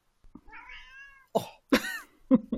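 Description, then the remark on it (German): A cat meows insistently several times in close succession, complaining for food: a drawn-out wavering cry followed by shorter, sharper meows, loud, with no one talking. “Aber deine Katzen können dich gut leiden. Ja, ja, der kann mich sehr gut leiden. Er, er meckert rum, ich weiß nicht, ich glaube, sein Fressen hat ihm nicht gereicht oder so.”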